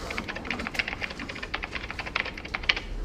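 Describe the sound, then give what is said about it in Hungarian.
Rapid, irregular clicking of keys on a computer keyboard as a name is deleted and the original retyped, fairly crisp, with a few sharper strikes standing out; no one speaks over it. “Akkor most törlöm a nevét. És visszaírom az eredetit.”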